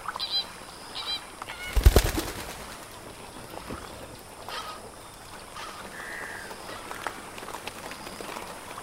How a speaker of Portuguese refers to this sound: Nos aproximamos dos flamingos discretamente, Alguns deles voam rente às águas.